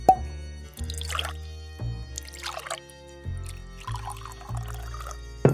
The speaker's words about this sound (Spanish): Para romper el hielo, mi marido sirvió más jerez de nuestra casa.